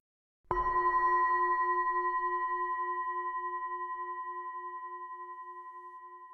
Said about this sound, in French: Chaque début et fin d'exercice sera rythmé par le son du gong.